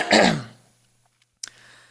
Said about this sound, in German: Und jetzt muss ich mich einmal kurz räuspern.